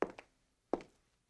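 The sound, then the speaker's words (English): Two soft, padded footsteps land about three-quarters of a second apart, each a dull thud with a lighter follow-up tap, alone in quiet. Someone is taking a free test walk in personally fit arch supports at a Good Feet store. “This is the sound of someone taking a free test walk in personally fit arch supports at the Good Feet store.”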